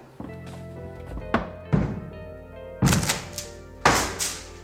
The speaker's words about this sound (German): Die Tür aufbrechen? Jawohl, Sir. Treten Sie einen Schritt zurück. Das ist Sache der Polizei.